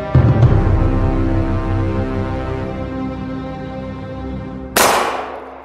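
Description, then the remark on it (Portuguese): A low, ringing tone hums and slowly fades, then near the end a single sharp gunshot cracks out loudly and echoes away through the forest. “Um tiro ecoou na floresta.”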